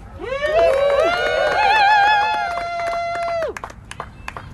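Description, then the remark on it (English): An audience greets the next speaker, from the Diaspora Palante Collective, with a round of applause: loud, sustained whoops and wavering cheers for several seconds, then the cheering stops abruptly and a few scattered claps trail off. “The next speaker will be from the Diaspora Palante Collective, so please give them a round of applause.”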